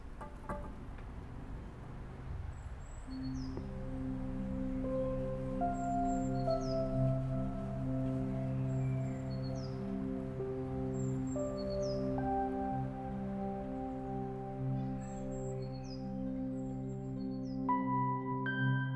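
Small birds chirp outside, heard through an opened door, in short, high calls repeating every second or two, fairly faint, over a steady low humming drone and soft background ambience.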